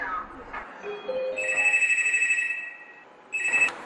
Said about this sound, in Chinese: 就在这个当口，指挥中心接到了一个报警电话。